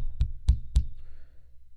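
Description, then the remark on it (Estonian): Three sharp wooden knocks, evenly spaced, as constable Bastion knocks with a stick on the front door of the robbers' house, followed by a quiet room tone. “seaduse nimel, avage, hüüdis kordnik Bastion ja koputas kepiga vastu ust.”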